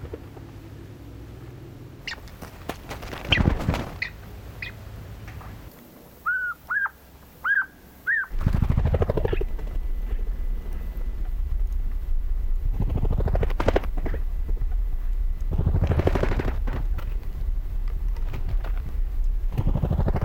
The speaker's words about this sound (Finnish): lopetellaan tältä erää ja kuunnellaan vaikka hetki tätä tuota kuukkelia.